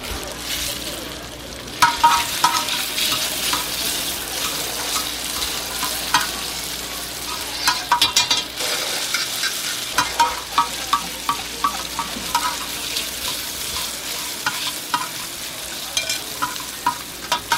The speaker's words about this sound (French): Oh, attends, la spécialité, c'est surtout les kirum tokpoki, gâteaux de riz sautés et légèrement frits dans de l'huile, moins pimentée que les autres.